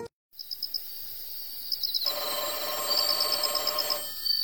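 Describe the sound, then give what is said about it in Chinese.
A telephone rings in a police station in the early morning of a midsummer day, in several bursts of rapid, high-pitched electronic trilling, each ring a quick pulsing chirp, with no talking over it. “一个盛夏的凌晨，警局里突然响起一阵电话铃声。”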